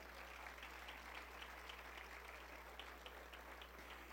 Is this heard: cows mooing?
no